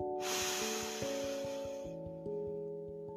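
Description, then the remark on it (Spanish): A long, deep breath drawn in through the nose during a breathing exercise, lasting nearly two seconds, over soft sustained music that continues after the inhale fades. “Inhala respirando por la nariz y exhalando por la boca.”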